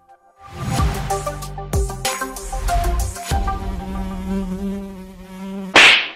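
A loud fly buzz drones for about six seconds, its pitch wavering and shifting like a short jingle, ending in a brief noisy burst. No one speaks.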